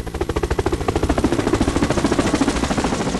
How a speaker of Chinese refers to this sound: 我去，还真有家长开直升飞机来学校啊！